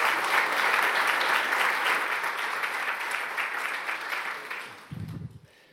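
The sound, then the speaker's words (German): An audience applauds the young people who led the music, skit and moderation of the service, steadily, a dense wash of many hands clapping that gradually thins and fades toward the end, with a brief low murmur of voices just before it stops. “Vielen Dank euch. Applaus Genau, für euch.”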